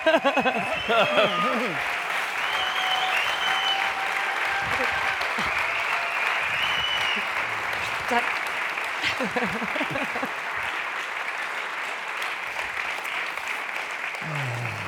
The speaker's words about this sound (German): musikalisch sind wir jetzt eingestimmt und ich würde sagen, jetzt können wir auch mal einen kurzen Applaus machen